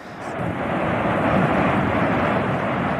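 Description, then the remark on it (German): A powerful volcanic eruption, which began on 19 September 2021, roars continuously, a dense, jet-like rumble that stays loud and steady throughout, with no voices or pauses. “Als es losging am Anfang, als würden irgendwie drei Düsenjets gleichzeitig hinter deinem Haus losgehen”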